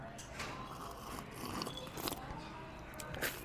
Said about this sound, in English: So I'm gonna have a little sip here.